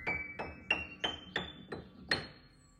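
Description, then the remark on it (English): A piano note, middle C, from Molly Brown's piano recordings, struck seven times at a steady pace, each hit bright and percussive with a brief ringing decay, the last one slightly stronger and left to fade. “Molly Brown's recordings of piano there. So for us, just the light of Middle C.”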